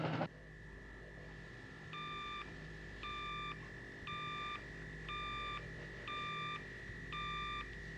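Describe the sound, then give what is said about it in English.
An intercosmic two-way thermophone radio beeps six times in an even, steady rhythm, each beep a short electronic chirp, over a constant high whine and a low background hum. No one speaks. “But if Alfred's on that flying saucer, maybe we can reach him on our intercosmic two-way thermophone.”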